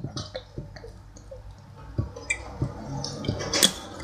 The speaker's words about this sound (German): Burp. Jetzt mit extra viel H2O.